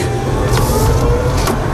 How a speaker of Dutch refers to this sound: Een tram. Ja, je hoort de metro. Die heb je ook hier in Rotterdam.